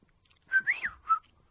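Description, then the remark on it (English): A person whistles a short, warbling phrase imitating the whistle-speech of a children's TV puppet show: a few rising and falling pitched notes over about a second, fairly soft, with no talking. “I think that was Clangers, wasn't it? I can't whistle this morning.”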